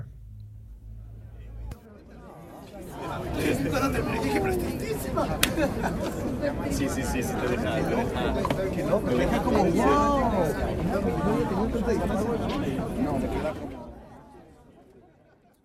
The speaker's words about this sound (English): and that is the sound of some happy Cannes festival goers leaving a screening.